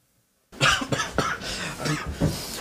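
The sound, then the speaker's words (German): After a brief silence, a person with a cough, a cold and a headache coughs repeatedly and hoarsely, a loud run of about five or six harsh coughs in quick succession with no talking. “Hallo, ich habe Husten, Schnupfen, Kopfschmerzen und Fieber habe ich, glaube ich, auch.”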